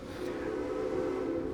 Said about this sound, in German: Und das war die Sirene äh, bzw. die Pfeife von der Eisenbahn, von der Westernbahn, die hier rumfährt.